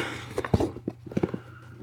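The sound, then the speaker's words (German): A plastic bottle of sparkling water tips over, making a quick run of irregular knocks and thuds over a low steady hum, with no one talking. “Oh, oh, oh, nicht gut, mir kippt hier gerade ein Sprudel um.”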